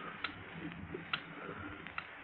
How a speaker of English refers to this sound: You hear that? Listen, it's ticking. Only two things tick a clock and a time bomb.